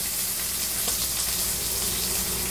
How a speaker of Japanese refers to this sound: 今、肉入れました。結構波形見てるとこの焼けてる時のこのパチパチって音でかすぎるかな俺の声よりもでかいもしかして